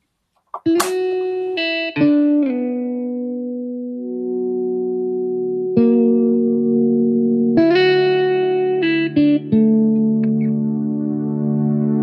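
A recorded song sung by a singer starts up, with sustained, steady melodic notes that shift pitch in distinct steps and hold for long stretches. It plays loud and continuous, with no talking over it.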